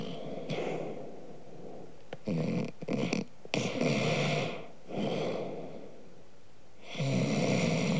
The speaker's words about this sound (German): Sie schnarchten leise im Takt.